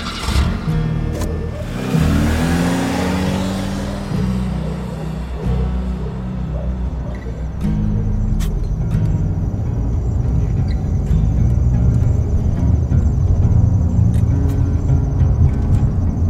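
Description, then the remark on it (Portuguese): A car engine cranks and catches as the driver presses the accelerator, then revs up with a rising, roaring whine before settling into a steady, loud idle rumble. “Deu partida pisando acelerador.”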